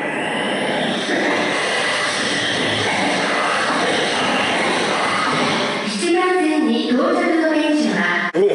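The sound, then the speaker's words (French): A person imitates the music, voices and sounds of the Tokyo subway with their mouth: a long, steady rushing roar like a train in motion, then a short warbling melodic jingle, loud. “Le gars, il imite les musiques, les voix et les sons du métro de Tokyo avec la bouche.”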